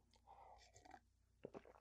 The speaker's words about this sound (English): let me get a little sip of my coffee here in my big old skullhead mug that I'm drinking.